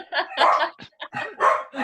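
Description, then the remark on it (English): Two dogs bark in a quick run of short, sharp bursts, set off by a person's growling, fairly loud, with brief gaps between them and what sounds like laughter mixed in. “I uh, I was able to activate the actual dogs with my, my growling.”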